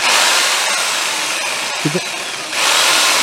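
A loud, steady jigsaw whine as it cuts, running continuously with a brief dip and a short low thump near the middle before the high buzz resumes.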